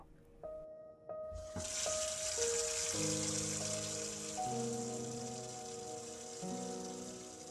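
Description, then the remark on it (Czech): A faucet at the pavilion toilets turns on about a second in and runs with a steady rushing hiss, while soft sustained tones sound underneath; the tap starts whining like a crying child. “Když tentokrát Kesí pustila kohoutek, okamžitě začal kňučet.”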